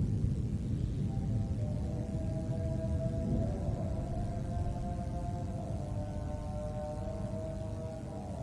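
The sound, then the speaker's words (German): A call to prayer drifts in as a long, wavering melodic chant, faint over a steady low rumble of background noise. “really just striking the video with the silence and the sounds like prayer or call to prayer coming from presumably a mosque”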